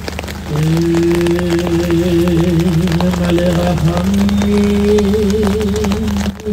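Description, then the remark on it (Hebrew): Heavy rain pours down in a dense, steady, loud hiss that fills the whole scene, while a single voice chants in long, wavering held notes above it, at a funeral in Israel for fallen IDF soldiers attended by thousands. “שבעה חללים, שבע משפחות שעולמן חרב עליהן, ביממה אחת, גם בגשם השוטף, אלפים הגיעו להיפרד, מארבעה מהם שובעו למנוחות”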